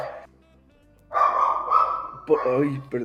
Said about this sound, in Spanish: perdón si se oyen mucho los perritos.